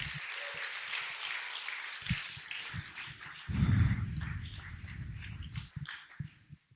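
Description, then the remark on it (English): A crowd claps together in a dense, steady patter that continues for several seconds, with a few heavier low thumps in the middle, then thins out and fades near the end. “Let's just clap.”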